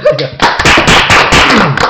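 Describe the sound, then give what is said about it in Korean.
A short burst of applause from a few people, dense overlapping claps filling nearly two seconds at a steady loud level, with some voices and laughter mixed underneath. “뭐, 박수 한번”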